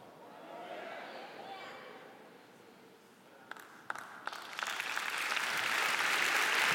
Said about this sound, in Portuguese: Tomara aquela que tenha puxado as palmas, né? Tomara.